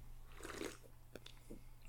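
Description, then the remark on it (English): A sip from a drink, with soft wet mouth noises, a brief swallow-like click in the middle, and a final smack, all quiet and without any talking. “I'm gonna take a sip, and then”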